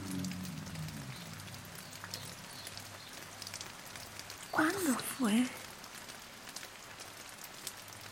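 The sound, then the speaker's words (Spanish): Water drips steadily in scattered, irregular drops, fairly soft, as water runs off someone's hands onto their face, with a brief spoken question partway through. “Nuevamente hunde las manos en el agua, las saca y deja escurrir las gotas sobre su rostro.”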